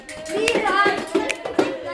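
Sharp hand claps and finger snaps in a steady rhythm in a counting game, a clap taking the place of 'one' and a snap the place of 'two', a few crisp percussive hits spaced evenly across two seconds, with a soft tonal hum underneath.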